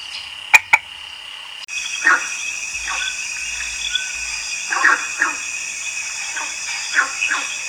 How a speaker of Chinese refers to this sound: 他们在水边生活，用皮肤呼吸，会吃掉蚊子。他们的小小孩像鱼一样，需要在水里面孵化和生活。长大以后才会到陆地上来，并发出这种 “co-co-co” 的声音来求偶。 是树蛙。